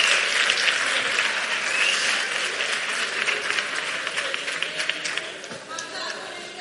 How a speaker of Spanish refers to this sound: Bueno, pues un fuerte aplauso para ellos, que lo han hecho fenomenal. Muchas gracias, chicas. Muchas gracias.